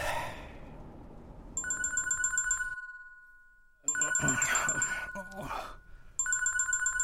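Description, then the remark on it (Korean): A telephone rings in bursts of steady electronic trilling, the rings repeating with pauses between them, while muffled sounds and what may be voices fill the background between and under the rings. “너 내가 전화할 줄 알고 일부러 피한 거지?”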